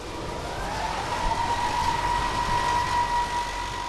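Automated feeding machinery in a house of caged laying hens switches on for a meal, running with a continuous mechanical rumble and a steady high whine that rises slightly in pitch, moderately loud, with no voices.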